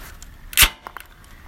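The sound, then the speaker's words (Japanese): A crisp mechanical click as something on a new bicycle is opened, one sharp loud snap followed by two faint, quick ticks, with no talking. “ちょっとね、開ける音をね、聞いていただきましょうか。”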